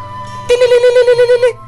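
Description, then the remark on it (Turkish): A cell phone ringtone melody, one of the melodies loaded on Judge Huxtable's phone, plays for about a second, a bright electronic tone pulsing in a quick steady rhythm of around eight beats, loud, with no talking. “Şöyle biraz melodilerini araştırayım şu cep telefonu.”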